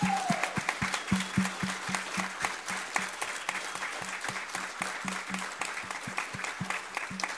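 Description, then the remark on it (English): A crowd applauds God steadily, many hands clapping in a dense, sustained wash, with a regular thudding beat running beneath the clapping throughout. No one speaks over it. “Can, can we give the creator of the universe a better applause than that for what he did last week?”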